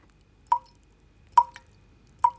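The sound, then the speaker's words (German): Water drips steadily out of a homemade layered water filter, the first drops coming through: three distinct drops falling at a slow, even pace, each a crisp little plop, with only faint background hiss between them. “Die ersten paar Tröpfchen träufeln jetzt hier raus.”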